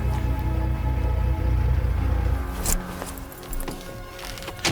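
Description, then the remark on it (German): An MG car's engine rumbles low and steady as it stops in front of a gate at night, then cuts out, followed by a few sharp clicks and knocks in the quiet, like a door or keys. “Der zweite Detektiv stoppte den MG genau vor Christines Tor.”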